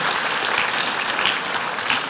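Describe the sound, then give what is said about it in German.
Steady audience applause, a dense wash of many hands clapping at an even loudness throughout, with no voices standing out above it. “Genau, gebt euch mal selber einen Applaus.”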